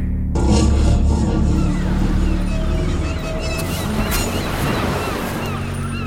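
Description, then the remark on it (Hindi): Steady, rushing surf fills the scene, a continuous wash of ocean waves on the shore with sustained musical tones layered over it and no clear talking. “इस समय वो समुद्र तट पर पूजन करने गए हैं”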